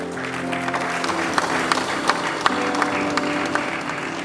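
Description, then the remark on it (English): An audience claps for the Lord during a sermon, steadily for several seconds, a dense wash of many hands with a few sharper claps standing out, over a low sustained hum of music or organ tones. “kindly give the Lord a good clap”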